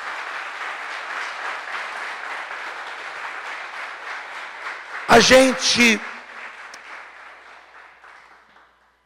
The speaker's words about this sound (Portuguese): Fique de pé no seu lugar, por favor. E vamos aplaudir a Jesus.